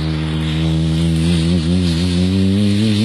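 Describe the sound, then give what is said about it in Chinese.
A man's voice imitates an airplane slowly taking off and flying, a sustained, steady droning hum, its pitch wavering slightly up and down for about three seconds, loud and unbroken with no other sounds. “哎，我学飞机像不像？”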